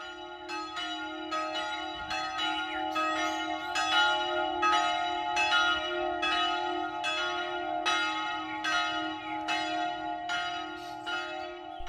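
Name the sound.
church bells ringing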